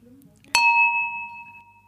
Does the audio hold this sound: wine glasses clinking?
yes